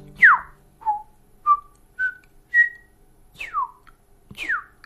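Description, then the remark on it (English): A series of clear, ringing New Zealand bellbird notes, about seven in all, some short and pure, others sliding downward, spaced evenly and heard alone in quiet surroundings. “New Zealand bellbirds are not a up, dump, dump, bump, bump. There it is.”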